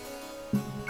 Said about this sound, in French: Vous entendez des notes de clavecin